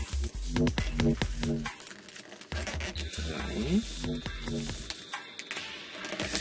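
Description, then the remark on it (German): A sheet of 80-gram DIN A4 paper is folded in half again and again, with crisp crinkling and rustling as it creases, coming in several bursts with short pauses between them. “Klassiker, DIN A4, 80 Gramm Papier.”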